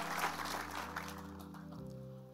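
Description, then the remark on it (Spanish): A crowd applauds the volunteers in a steady, fairly quiet burst that thins out after a couple of seconds, with a sustained low musical drone holding underneath the whole time. “¿Y qué tal si le damos un aplauso a todos los voluntarios que han estado con nosotros desde muy temprano?”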